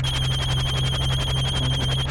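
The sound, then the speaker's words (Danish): A telephone rings with a loud, continuous electronic trill, rapid pulses repeating steadily for the whole moment, clear with no voices over it. “Hold on, hold on. Let me get the phone.”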